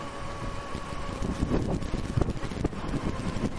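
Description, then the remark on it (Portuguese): Strong wind buffets the microphone, producing a steady, rumbling roar with louder low thumps and gusts that swell and fade throughout. No one speaks. “O vento tá forte aí agora, mas eu vou falando mesmo assim.”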